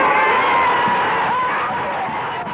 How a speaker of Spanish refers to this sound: Pero como siempre, no lo sabían estos estúpidos que gritan.